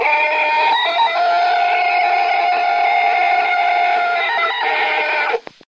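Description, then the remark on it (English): The Tarzan yell, a jungle man's yodeling cry: one long loud harmonic cry of about five seconds that warbles and jumps between pitches before cutting off abruptly. No other sounds accompany it. “Oh, that's the Tarzan yell.”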